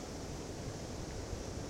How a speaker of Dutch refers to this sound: Als je een schelp tegen je oor houdt, hoor je het ruisen van de zee. Dat is natuurlijk niet echt zo. Want de zee zit niet in een schelp. Maar zo klinkt het wel.